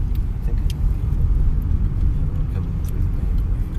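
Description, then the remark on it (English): Steady low engine rumble of a car driving around through a back way, heard from inside with continuous road noise and faint higher ticks; some muffled voices may sit under the drone. “Oh yeah, we're gonna zip around through the back here.”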